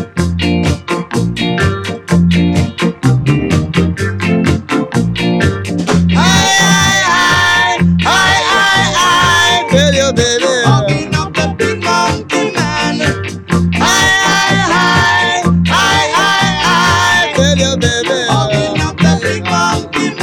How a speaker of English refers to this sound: For the next track, he did mean it. He'd lost a girlfriend to an ugly man, and he called that man a ….